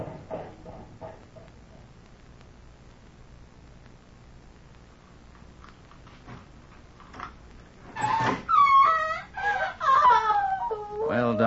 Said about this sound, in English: What was that scream I just heard? It's your patient, Dr. Manette. We'll take you right upstairs to her now.